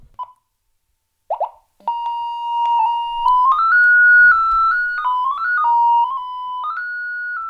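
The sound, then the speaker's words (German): After a few short blips, the steady electronic tone of a Fame light detector sounds, then climbs in small stepwise jumps to a higher pitch and wavers there as it locates a window in the room, with no one talking. “Damit kann ich also Lichtquellen im Raum oder eben auch ein Fenster lokalisieren. Das gleiche geht beim Fame auch. Da klingt der Ton vielleicht minimal anders.”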